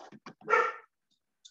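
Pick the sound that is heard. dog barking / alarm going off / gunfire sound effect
dog barking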